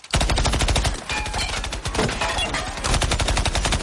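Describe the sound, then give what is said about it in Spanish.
Sustained gunfire from an AR-15 loaded with a 50-round magazine, fired along a road at off-road vehicles stopped about 300 metres away, a rapid stream of sharp, loud shots in quick rhythmic bursts that run almost without pause for about four seconds, with no voices. “Mete otro cargador de 50 balas.”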